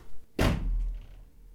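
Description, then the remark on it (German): A girl slams a heavy bedroom door shut, a sharp loud bang with a low booming thud that rings out briefly before fading. No voices. “Sie drüllt sich um, geht ins Schlafzimmer und schlägt die Türen zu.”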